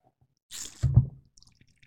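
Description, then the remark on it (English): A brief slurping sip of scotch whisky, a soft airy intake followed by a wet swallow, with faint mouth clicks trailing off afterward; no talking. “I'm still gonna take a sip from the first one.”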